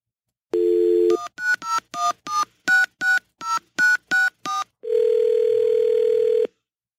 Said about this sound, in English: But if you would, at the sound of the tone, leave your name, number, and a brief message, and one.